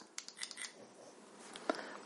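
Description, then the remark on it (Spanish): The fire button on a vape device is clicked three times to switch between menus: a quick run of soft plastic taps followed by a sharper single click, fairly quiet, with no talking. “Para cambiar entre menús, tres clics en el botón de calada.”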